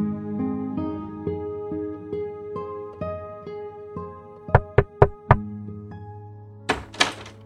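Four quick, sharp knocks on a door in an even rhythm as someone knocks and enters, heard over soft sustained background music, followed a moment later by a brief noisy scrape.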